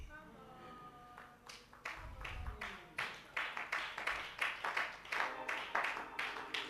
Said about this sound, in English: I didn't ask you to clap, but if you want to clap, I think.